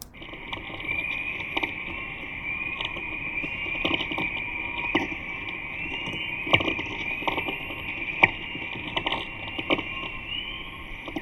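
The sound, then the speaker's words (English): An eerie sonified recording of Earth's magnetosphere during a solar storm: a steady high, hissing drone with faint wavering whistles, broken by irregular sharp crackles and pops throughout, with no voices. “But when these storms occur, they have a significant impact on radio communication, and we can, again, hear the sound of the earth protecting us.”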